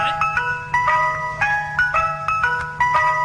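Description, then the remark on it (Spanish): A tinny electronic ice cream vendor (paletero) truck jingle plays a bright, repeating melody of chime-like notes, loud, with a steady low hum underneath and no talking. “Esta, la que oímos, esta sí me asusta a mí. Ay, te es la de la nieve, el, paletero”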